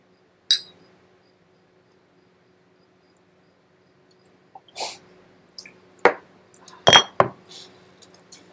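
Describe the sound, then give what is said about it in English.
Glasses clink together in a toast: one bright chime, a quiet pause, then a quick cluster of sharp clinks and taps, with no voices. “Cheers. I got one poured already.”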